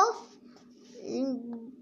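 A dog barks, a short sharp bark at the start followed after a brief pause by a longer whiny, yelping bark, moderately loud with no clear talking.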